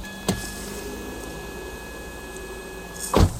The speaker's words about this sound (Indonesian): bunyi pintunya ya elah